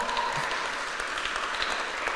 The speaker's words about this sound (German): Das ist meine Frau, Eva. Gib mal einen Applaus an meine Frau.